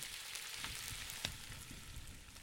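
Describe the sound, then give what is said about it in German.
Ingredients are browned in a cauldron over a fire, with a steady, dense sizzle and crackle that holds even throughout, dotted with a few sharper pops and spits; no one speaks. “Jetzt kommen die Zutaten in den Kessel und werden angebraten.”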